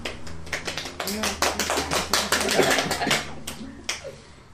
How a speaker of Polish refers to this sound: Wolno w ogóle klaskać w czasie tej audycji? Można wszystko, można wszystko.